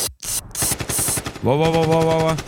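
A loud burst of Kalashnikov automatic rifle fire, rapid evenly spaced shots rattling nonstop for about two and a half seconds, with a sustained droning tone joining midway.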